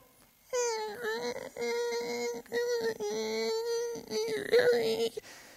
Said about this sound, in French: elle ferme son store, juste au-dessus de nous. Et la particularité avec son store, c'est qu'il grince.